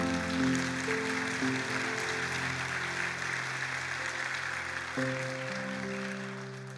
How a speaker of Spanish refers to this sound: Le damos un aplauso al Señor por eso.